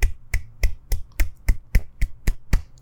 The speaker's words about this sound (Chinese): 所以非常好的电影，在这里掌声送给这个电影。